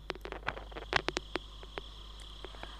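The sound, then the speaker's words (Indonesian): Light drizzle begins falling on a house roof in scattered, irregular ticks and taps, some sharper than others, all fairly quiet with no one speaking. “Gerimis rintik hujan terdengar mulai turun. Tetesan airnya berdetik jatuh di atap rumah.”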